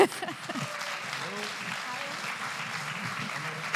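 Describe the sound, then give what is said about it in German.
A live audience applauds steadily as a guest is called up, a dense wash of clapping that holds at a fairly even level throughout, with faint voices and cheers mixed in underneath. “Ein Applaus”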